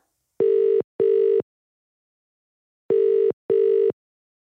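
An outgoing phone call ringback tone: two pairs of steady electronic beeps, each pair a quick double ring, separated by a long silent pause. Clear, with no voices.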